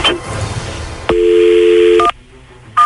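A telephone number being dialed: a click, a steady humming dial tone for about a second, then short electronic keypad beeps, with a hiss of background noise and no talking.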